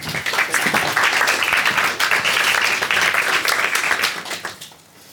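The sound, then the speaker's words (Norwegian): An audience applauds panelists just introduced on stage, a dense, steady wash of many overlapping claps, holding strong for about four seconds before tapering off quickly at the end. “Gi dem en applaus.”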